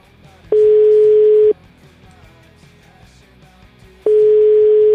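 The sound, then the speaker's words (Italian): A steady telephone ringback tone sounds twice while a call is being placed, each burst about a second long with a long silent gap between, loud over faint background murmur. “Chiamiamo. Il numero ce l'avete”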